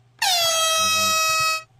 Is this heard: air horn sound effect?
yes